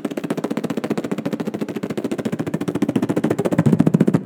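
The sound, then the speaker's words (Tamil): A voice imitates a helicopter's rotor chop blended with rapid gunfire, as part of a stage mimicry of a James Bond car chase scene: a steady, fast stream of punchy pulses lasting about four seconds, growing slightly louder toward the end. “அப்படியே wireless okay தான் சொல்லுவான் மைண்ட் மிஸ்க்கு சொல்லுவான் நீ சுத்த அப்படியே ஃபயரிங் நடக்கும் இது எல்லாம் கலந்தது தாங்க ஜேம்ஸ் பாண்ட்”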